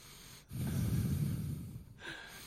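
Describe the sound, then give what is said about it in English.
A single loud, exaggerated breath lasting over a second, airy and rough, with no talking around it. “it's just meditation just us the breathing”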